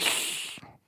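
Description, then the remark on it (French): A person makes a short, breathy hiss in imitation of an angry cat that has been stepped on, bright and airy, lasting under a second before cutting off with a faint throaty catch at the end. “c'est crissé des dents, ça, ou pas C'est un chat.”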